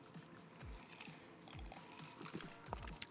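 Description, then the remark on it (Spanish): Quiet sips and swallowing of a gin and tonic, with about three soft gulping thumps spaced roughly a second apart and faint wet mouth sounds in between, no talking. “Perdón, le di un trago a mi gin and tonic.”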